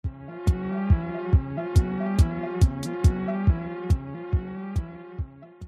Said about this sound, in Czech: Když tak pro posluchače sanitka je venku.